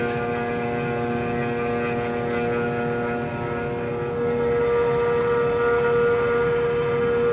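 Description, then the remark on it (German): A power router whines steadily and loudly, its high motor tone running continuously as it cuts lightly into a thin spot of a wooden board, milling the wooden body of an instrument, with no voices. “Man hört dass er nicht mehr viel Holz muss wegfräsen muss, bis, bis eigentlich jetzt gar nichts mehr.”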